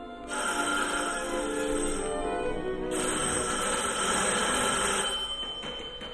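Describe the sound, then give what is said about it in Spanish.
A telephone bell in a study rings loudly in the late afternoon, two long metallic rings running almost back to back, with no voices present. “Cuando aquella tarde a última hora empezó a sonar el teléfono del estudio”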